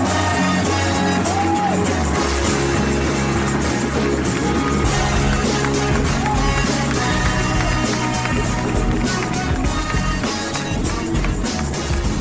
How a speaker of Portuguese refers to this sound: Então, eu quero pedir uma salva de palmas para receber aqui no palco os podcastinadores, senhoras e senhores!